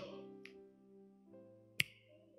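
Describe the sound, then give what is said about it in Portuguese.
A single crisp finger snap cracks out over a steady, low sustained musical tone, with a fainter, softer click a moment earlier. “No estalar de dedos.”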